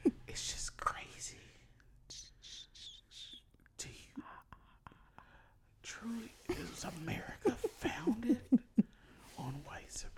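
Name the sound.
ASMR-style whispering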